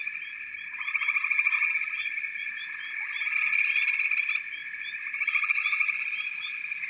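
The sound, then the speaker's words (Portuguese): A dense chorus of frogs croaking and trilling together in a steady, unbroken wall of sound, with sharper individual calls popping out on top. No voices are present. “Você escuta o barulho dos sapos.”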